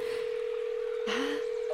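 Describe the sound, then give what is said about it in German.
A steady electronic phone tone hums throughout as a phone is tried out for calling while stuck in a large dead zone with no reception, broken by a brief burst of keypad beeps partway through, with a faint short tone near the end. “Können wir jetzt auch wieder telefonieren? Bin schon am Ausprobieren.”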